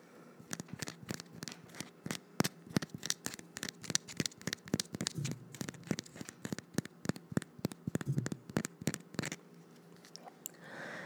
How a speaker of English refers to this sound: the sound of tapping.